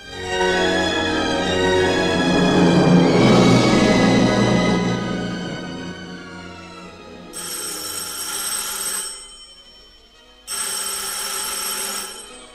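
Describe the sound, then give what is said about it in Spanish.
A telephone bell rings twice with loud, jangling bursts about a second and a half long, separated by a short pause, following a swell of other sound, with no one speaking. “Más te preocuparás cuando oigas el teléfono.”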